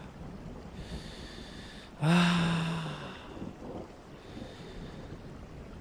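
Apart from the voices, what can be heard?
heavy rain falling outside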